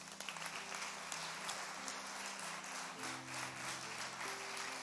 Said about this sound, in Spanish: Denle un aplauso.